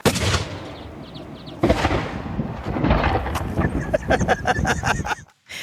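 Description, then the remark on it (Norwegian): A harpoon cannon firing at a whale during the last whale hunt, in 2011, of former politician and whaler Steinar Battesen: a loud booming blast, a second heavy boom a moment later, then a rapid run of sharper cracking reports before it cuts off. “Å skyte hval er ikke noe problem. Det er bare å sitte på hvalen, og så gjør man sånn, og så trykker man av.”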